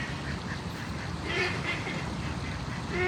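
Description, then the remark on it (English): Mating ducks quack repeatedly in short, raspy bursts over a steady background murmur, the calls coming in an irregular rhythm. “What the fuck are those ducks? They're doing? mating.”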